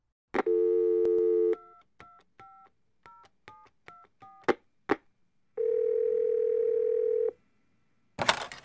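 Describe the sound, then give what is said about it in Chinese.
A steady telephone dial tone hums for about a second, then a quick run of short keypad beeps as a boy secretly phones home at night while his grandmother sleeps, a longer continuous tone, and a closing click. No voices. “但是小班终于受不了了，他想回家，他就趁着阿嬷睡着之后，偷偷打电话回家了。”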